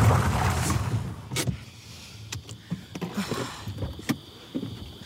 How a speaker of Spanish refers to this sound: Y dando un volantazo, aparcó al lado.